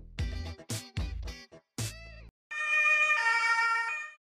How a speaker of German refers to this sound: Ich habe es gehört. Du, du buzzerst für sie.